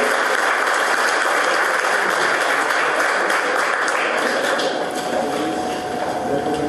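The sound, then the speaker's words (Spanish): Sustained clapping from a crowd applauding the winner of a contest at an event at the Benemérita Universidad Autónoma de Puebla, a dense patter of many hands filling the whole stretch at steady loudness, with no voices standing out above it. “Pedimos de nueva cuenta un aplauso para la ganadora del concurso”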